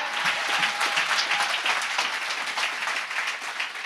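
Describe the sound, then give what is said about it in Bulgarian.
An audience bursts into sustained applause after being called to clap if they believe, dense overlapping claps forming a steady, loud wash of sound that holds for several seconds without talk. “Ръкопляскай, ако вярваш.”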